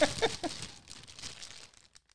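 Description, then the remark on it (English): A huge plastic bag of Papa popcorn crinkles and rustles open in a quick, busy burst of crackly noise that gradually thins out into a few last faint crinkles. “And then I got this huge, massive bag of Papa popcorn.”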